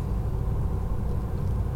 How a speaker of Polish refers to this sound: jedziemy takim zajebistym autem, które samo jedzie. Jedziemy iPhone'em, siedzimy w iPhone'ie. Dokładnie, z elektrycznej.